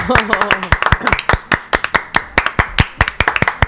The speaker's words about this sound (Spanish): y después de lo que lo voy a decir, no hace falta ni que pida el aplauso. Le va a salir solo.